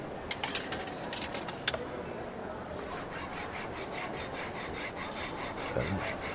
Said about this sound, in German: Die Münze ist durchgefallen. Ja und? Na, jetzt treibe ich sie am Automaten. Äh, und das hilft? Äh, ja klar. Entschuldigung, wenn ich mich da einmische, aber das ist Unsinn.